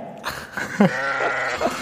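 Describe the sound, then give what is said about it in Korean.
A person imitates a goat's bleat, a wavering, nasal vocal tremble with quick pulses, drawn out over about two seconds. “Why 염소미?”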